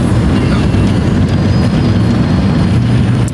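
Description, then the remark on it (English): An automatic car wash machine washes a car, a loud, steady low rumble with constant whooshing spray and brushing noise that fills the whole moment without pause. “Well, some, I mean, a machine is washing the car for me, but I'm having, I'm treating my car to a bath.”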